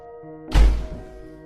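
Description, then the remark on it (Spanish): A door slams shut once with a heavy, low thud and a short burst of rattle that fades quickly, over a faint steady hum and no voices. “Corrió hacia la puerta, mirando con furia nuevamente a James, esta vez con sus ojos llenos de lágrimas y odio, desapareciendo fuera y golpeando la puerta tras de ella.”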